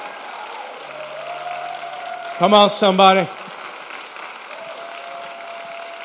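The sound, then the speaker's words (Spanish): A church audience applauds for the fire of God in a steady, sustained wash of clapping throughout, while a man's voice rises over it with a brief, loud shout midway. “El que quiera el fuego de Dios, que le dé un aplauso como si usted lo quisiera.”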